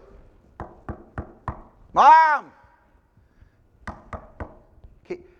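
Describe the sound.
Four sharp, evenly spaced knocks on a closed door, then a single shouted word from a voice, followed by three more quick knocks.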